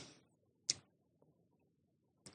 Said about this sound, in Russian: Едет, едет. Вдруг ему показалось, что что-то стучит под капотом. Тук-тук-тук-тук-тук-тук.